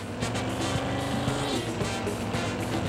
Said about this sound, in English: Oh, I was just driving this car right now, a little coupe.